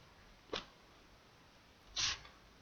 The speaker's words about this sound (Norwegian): Jeg tror noen som hørte det, det var kullsyre fra brusen min jeg åpna flaska.